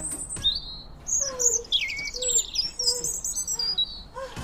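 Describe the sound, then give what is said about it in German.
Several birds chirp and tweet in overlapping bursts in the morning in spring, high-pitched trills and short calls layered throughout, clear, with no one speaking. “Frühling oder auch die Zeit, in der man morgens wieder von Vögeln wach wird.”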